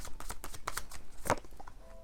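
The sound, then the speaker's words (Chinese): Tarot cards being shuffled and drawn from a deck, a run of quick papery slides and soft flicks in an uneven rhythm, with one sharper snap near the end and no one talking. “好，先让我抽验证，我要看目前你对他的想法。”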